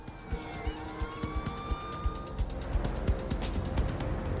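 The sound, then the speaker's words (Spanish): A police siren wails in rising and falling sweeps for a couple of seconds before fading, over steady road noise scattered with sharp, rapid clicks and knocks. “El sonido cercano de las sirenas evitó que la joven resultara herida de gravedad.”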